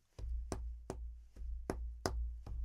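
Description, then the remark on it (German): A series of about seven sharp taps knocked out at a steady, measured pace, demonstrating a three-four beat, with a low constant hum underneath and no talking. “Und Dreiviertel wäre dann so”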